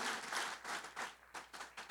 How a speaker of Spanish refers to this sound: Un aplauso para ti.